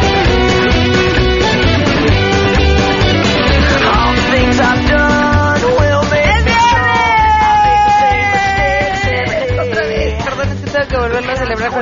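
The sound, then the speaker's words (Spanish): A loud, excited shout rings out over dense, energetic music, the voice stretching into a long, sustained, forceful cry lasting several seconds. “Ay, hasta me mareé del grito.”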